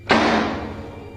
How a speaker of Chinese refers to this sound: 子超敲了敲门。